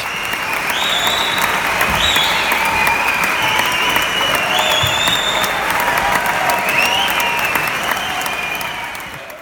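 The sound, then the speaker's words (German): A concert audience at a singer's show applauds and cheers continuously before he has even come on stage, a dense wash of clapping with whistles and shouts rising over it, staying loud throughout before easing slightly at the end. “schier durchdrehte noch bevor … überhaupt auf der Bühne war, bevor er ein einziges Wort gesprochen hat und das hat mich doch überrascht, positiv überrascht.”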